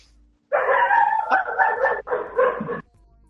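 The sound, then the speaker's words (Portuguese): A dog barks loudly because of fireworks, in a long, drawn-out burst lasting about two seconds, with a brief break before a final stretch. No one talks over it. “Deixa o cachorro latir”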